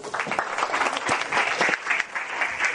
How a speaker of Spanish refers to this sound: Así que eh, empezamos con Concha Casas y le damos un fortísimo aplauso.